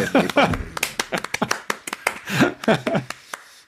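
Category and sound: crowd, short applause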